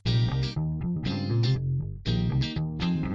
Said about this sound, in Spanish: Bueno, pues ya escucharon la cortinilla.